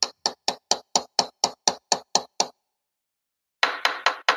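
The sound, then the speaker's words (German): A hammer knocks in a quick, steady run of about ten sharp blows, stops for a second, then lands four more louder, rapid strikes. The hits are clear, with no talking. “Ein Werkzeug, was du zu Hause hast, wenn der Mann mit dem Hammer.”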